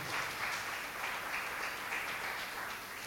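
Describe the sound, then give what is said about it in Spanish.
An audience at a church service applauding the Lord steadily, a dense wash of many hands clapping at once with no break, loud and even throughout with no voices standing out. “Si va un aplauso, lo fuerte al Señor en esta hora.”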